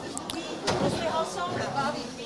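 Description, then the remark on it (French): A door bangs a few times in quick succession, sharp knocks, while people talk and move around as they pass through the door into a kitchen. “est-ce que tu peux nous tenir la porte, s'il te plaît, pour qu'on passe avec.”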